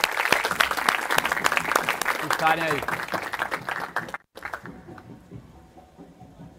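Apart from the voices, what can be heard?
audience applause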